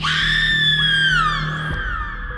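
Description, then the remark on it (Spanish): A mother's long, piercing, heart-rending scream rings out loudly as she enters a room, sustained for about two seconds and wavering slightly in pitch, with a low droning hum underneath. “Al escuchar los gritos, su madre entró a la habitación y con un grito desgarrador todo se detuvo.”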